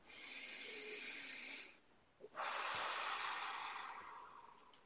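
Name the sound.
deep breath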